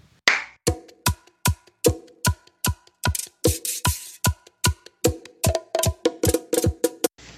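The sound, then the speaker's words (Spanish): Rhythmic applause: about twenty sharp, bright claps land in a steady, quick beat for several seconds, fairly loud and with no voices over them. “Da otro aplauso ahí.”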